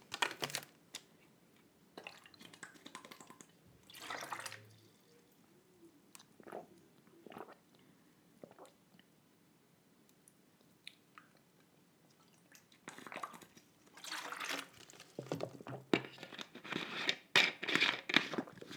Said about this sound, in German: Ich muss mal einen Schluck Wasser hier nehmen.